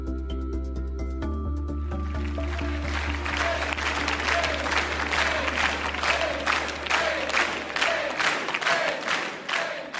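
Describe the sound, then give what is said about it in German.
A large crowd of cheering CDU supporters on election night 2005 cheers, then settles into a loud, steady rhythmic chant of "Angie", repeated bursts of many voices about twice a second, after a brief sustained musical tone at the start. “In der Wahlnacht 2005, in der diese Angie-Sprechchöre aufgenommen wurden, konnten sich wohl selbst die jubelnden CDUler kaum vorstellen, dass dies der Beginn einer Ära ist.”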